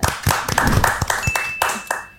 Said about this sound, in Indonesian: Tepuk tangan dong buat teman-teman uh. semua.